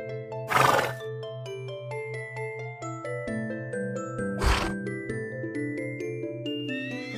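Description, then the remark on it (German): A horse neighs and snorts in two short, breathy bursts, one near the start and one past the middle, over a steady bed of soft, sustained musical tones with a pulsing low note. “Immer das Lachen der anderen Feen und das Wiehern und Prusten der Einhörner im Ohr.”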